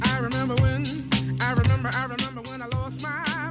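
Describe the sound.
A pop song plays loud and up front, a male singer's soaring, vibrato-laden voice carried over a steady bass line and a punchy beat.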